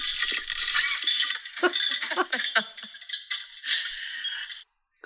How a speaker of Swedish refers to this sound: Vi poppar popcorn om ni undrar. Här är autentiskt popcornljud.